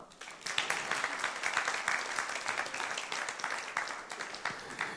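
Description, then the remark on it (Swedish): Audience applause welcoming a guest: a steady wash of many hands clapping, dense and continuous with fine crackling texture, holding an even moderate loudness throughout without any voices. “Ge honom en applåd.”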